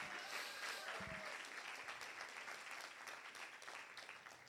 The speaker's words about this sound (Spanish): Vamos, alguien dar un aplauso fuerte a Jesús.